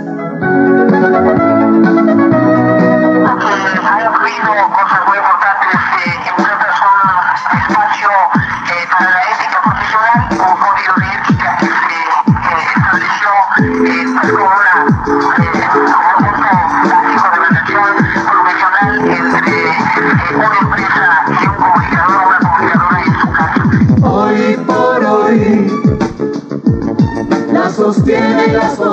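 A son music track plays loudly and continuously, with a steady percussive beat under layered melodic instruments and a fuller arrangement entering after a few seconds; no one speaks over it.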